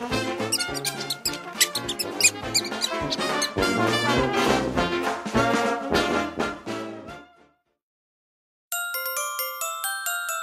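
Busy, overlapping mouse squeaks chatter loudly for several seconds, then stop; after a short silence a thinner burst of high, tinny squeaking starts up again.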